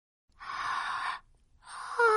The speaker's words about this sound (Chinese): 我打了一个大大的哈欠。